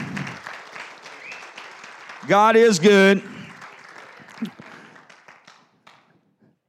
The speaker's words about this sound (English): Let's give God a hand clap of praise this morning.